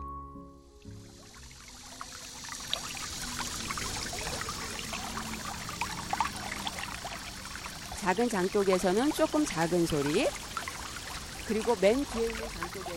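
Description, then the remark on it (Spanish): A stream runs steadily past flat stepping stones laid along its course, its continuous trickling rush steady throughout, with a voice speaking over the water in the latter half. “han puesto piedras planas siguiendo la corriente de agua para que se pueda caminar sobre ellas.”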